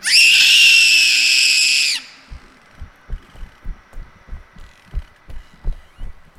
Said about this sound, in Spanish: Comenzó a correr por el pasillo, gritando, hasta que se topó con su madre.